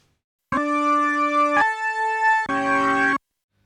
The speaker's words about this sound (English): I'm going to be using this Farfisa organ on my Nord Stage 2 here, which sounds a bit like this.